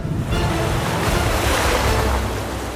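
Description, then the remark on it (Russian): Rough sea waves surge and crash in a steady, loud roar, with gusting wind noise buffeting throughout and no voices present. “Ничего не оставалось, как подниматься на поверхность штормового моря.”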